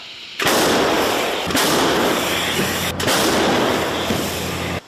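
An M109 self-propelled howitzer fires, producing a loud, harsh roar of blast noise that fills nearly five seconds, broken by two sharp cracks partway through, with no voices.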